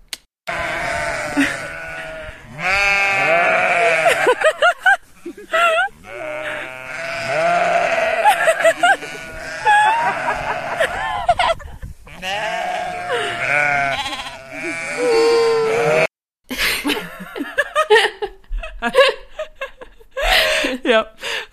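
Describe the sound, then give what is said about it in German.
A flock of sheep bleating loudly and almost continuously, many overlapping wavering cries, with a few brief pauses and a noisier, scrappier stretch near the end. “Also das sind die Schafe.”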